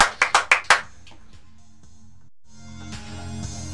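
A brief round of applause for a guest as a show signs off: five quick, sharp, evenly spaced claps in under a second, then a steady low hum with a soft tonal bed rising toward the end.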